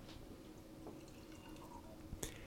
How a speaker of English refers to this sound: just sorry, I'm distracted by myself pouring a, uh, some more cabin still. Uh, they're not a sponsor.